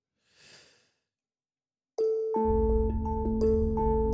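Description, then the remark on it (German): A soft breath, a moment of quiet, then loud boss-fight background music bursts in abruptly, with heavy booming bass under sustained, layered chords that keep going to the end. “Das ist ein Boss-Track.”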